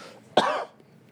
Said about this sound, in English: but yeah, I was the two of us were also a little under weather the past two weeks, but now that was the first. Just then was the first time I coughed all day.